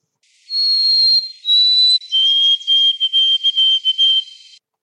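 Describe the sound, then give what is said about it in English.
A songbird whistles clear, pure notes: two long held tones, then a run of quick, stuttering repeated notes ending on a longer one, a song type that originated in western Canada and is spreading east. Loud and alone, with no voices. “short note, long note, short note with not much of a space in between it. And then they sort of they end it on a long note”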